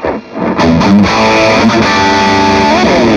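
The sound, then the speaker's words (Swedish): Distorted electric guitar played through a Wizard amplifier, a short sustained phrase of bending, overdriven notes, loud and buzzing, with a steady wash of amplifier hiss underneath; no one speaks. “Däremot så och, eh, Wizarden har ju lite mer brus som du hör, eh, till skillnad från EVH då, som egentligen brusar väldigt mycket, men den har ju en rätt smart gate inbyggd.”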